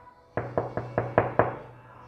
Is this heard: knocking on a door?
yes